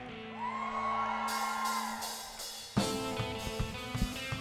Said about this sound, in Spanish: Denle un fuerte aplauso al Señor. Cantamos la que quieras. Vamos, déselo fuerte. Grita de júbilo.